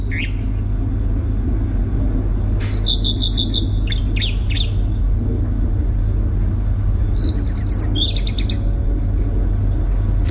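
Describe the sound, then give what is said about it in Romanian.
A small bird sings two quick bursts of bright, high chirping phrases over a steady low rumble of background traffic noise. “Nu ciripesc doar noaptea. Și ziua”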